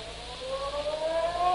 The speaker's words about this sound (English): The next morning, just as the ferry building siren was announcing 8 o'clock to downtown San Francisco,